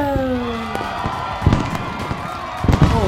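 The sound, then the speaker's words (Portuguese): A salvo of fireworks: several sharp bangs and crackles go off in quick irregular succession while whistling rockets trail across the sky, with a faint crowd murmur in the background. “estamos aqui em 2020 nesse primeiro episódio, uma salva de fogo de artifício!”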